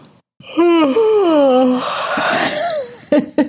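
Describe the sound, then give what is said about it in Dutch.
A single long, drawn-out yawn from one person, made on request to widen the throat, rising then sliding down in pitch with a breathy, groaning voice, loud, trailing off with a short breathy sigh at the end. “Kunnen we een gaap oproepen? Ja, ik wel hoor.”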